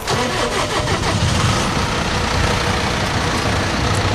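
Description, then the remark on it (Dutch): A tractor with an extra-wide wheelbase cranks and catches, then settles into a steady, loud, rumbling idle, with a dense low-frequency chug throughout and no voices. “Even verderop staat ook een tractor. Of ik zou eigenlijk eh, trekker moeten zeggen, is mij inmiddels verteld.”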